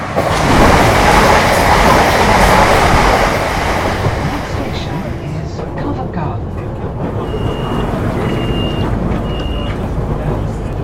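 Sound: subway train running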